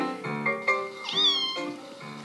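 A cat meows loudly in a drawn-out, wavering call that rises to a high strained peak before falling again, with no voices around it.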